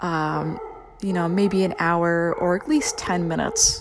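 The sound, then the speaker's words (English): A dog barks in the background, partly buried under a person speaking steadily; the barks are intermittent and fainter than the voice. “i apologize if you hear my dog backing uh, barking in the background here”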